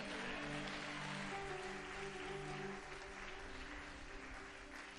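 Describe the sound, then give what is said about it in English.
A church audience claps hands together in a loud, sustained burst of dense applause, with steady tonal music or held organ-like notes underneath, tapering slightly toward the end. “If you are blessed, clap your hands and shout a big amen.”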